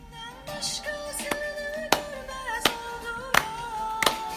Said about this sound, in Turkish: Bu alkış iyi mi kötü mü bilmiyorum. kötü. Alkış iyi mi kötü mü arkadaşlar? Bir feedback alırsak.